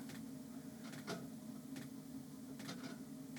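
A heater's petrol fuel pump in a boat cabin ticks with sharp, clicky pulses every second or so, over a steady low mechanical hum. The ticks are moderately loud, with no one speaking.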